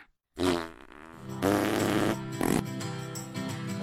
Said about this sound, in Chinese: 为什么有人放屁的声音特别大？可能是因为他穿了喇叭裤吧。